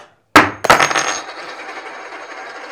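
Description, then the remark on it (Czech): A tossed coin lands with two quick metallic clinks, then rings and rattles as it settles, with a bright shimmering tone fading slowly. No voices are heard. “Když padne orel, tak, tak pokračujeme.”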